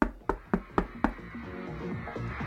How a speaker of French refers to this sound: Tenez, frappons à cette porte, je ne sais pas pourquoi elle me parle.